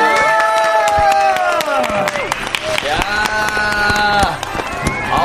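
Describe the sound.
A studio audience in an open studio breaks into steady applause for a singer's first solo album release, rapid claps running throughout with cheering voices and sustained tones layered on top, fairly loud for about five seconds.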